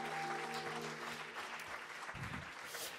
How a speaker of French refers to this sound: Oui, est-ce qu'on peut l'acclamer encore une dernière fois aussi fort que vous pouvez Il est notre roi, c'est notre Seigneur.